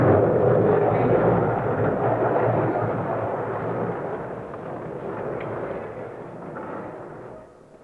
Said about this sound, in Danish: Hele forestillingen var bygget op som en koncert, og det første musiknummer var, som man kunne høre, lyden af stolene, som blev flyttet rundt mot scenen, hvor Ben Vautier opførte en række ultrakorte koncertnummer.